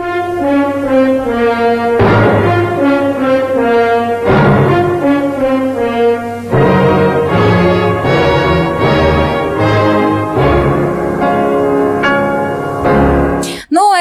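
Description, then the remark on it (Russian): A loud orchestral passage from Piano Concerto No. 1, played at Olympic award ceremonies in Tokyo in place of the Russian anthem because of a doping scandal, plays on its own, full sustained chords swelling and shifting steadily before cutting off abruptly near the end. “во время церемонии награждения будет звучать концерт номер один Чайковского, хотя тоже великая музыка”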